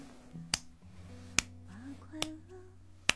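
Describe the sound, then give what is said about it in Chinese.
A 'pa-pa' beat-marking sound: four sharp snapping slaps ring out at uneven intervals over a low, steady tonal hum with faint wavering notes. The first, second and last hits are loudest, the third a bit softer. “听到了吗？这是这是啪啪的打点声。”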